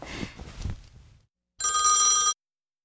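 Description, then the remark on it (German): A single loud burst of a telephone ringing, a bright, buzzing electronic trill lasting under a second, preceded by some muffled rustling and clatter, then silence. “Ey, das Telefon geht wieder.”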